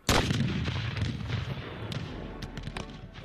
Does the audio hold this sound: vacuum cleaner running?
no